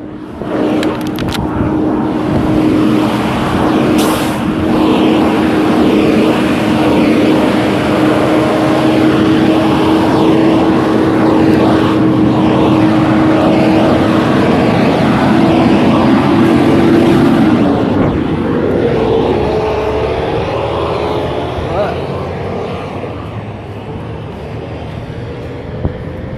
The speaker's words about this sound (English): That was a truck, it's a line truck that just uh, left a whole bunch of fumes. It fucking stinks.